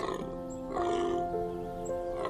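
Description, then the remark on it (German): A deep stag bellow, one drawn-out groaning call with a rough, tonal quality, fairly loud, with no talking around it. “Mit tiefer, angenehmer Stimme antwortet ihm Hirschpapa Jort.”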